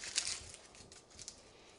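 Dry, papery crinkling and crackling as the thin outer paper skin is peeled off a medium onion, a few short rustling bursts, fairly quiet, with no one talking.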